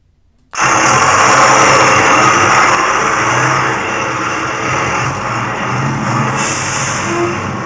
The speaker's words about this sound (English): let's head out to the parking lot. We are going to need to fire up the bus in just a second.